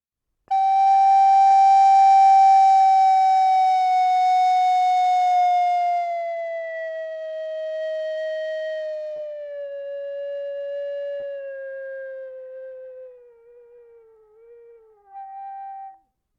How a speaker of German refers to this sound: Also ein steigender Drache. Ich mache mal ein Beispiel von einem langsamen Glissando. Vielleicht kann man sich dann vorstellen, wie so ein stehender Drache mhm. so langsam im Wind sich weiter bewegt.